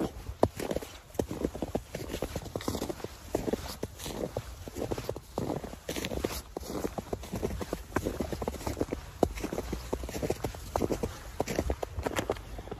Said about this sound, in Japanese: まあこんなとこですねもう飽きたかな雪の音でした